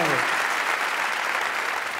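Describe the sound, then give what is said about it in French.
An audience claps steadily for about two seconds, a dense, even patter of many hands at a constant level, with a brief voice audible at the very start. “Ah, le frisson de, mauvais applaudissements.”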